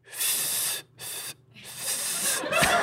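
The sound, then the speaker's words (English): A voice imitates slurping bucatini pasta with three airy sucking hisses: two short bursts with brief gaps, then a longer, rising slurp that grows louder toward the end. “this is the sound when you try to eat bucatini.”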